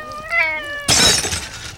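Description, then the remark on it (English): A cat gives a drawn-out meow, then a sudden loud crash as the cat knocks a glass of Tab soda onto the floor and it shatters, the bright clattering ringing on for about a second. “That She spilled my glass on the floor. It's, uh, it's everywhere.”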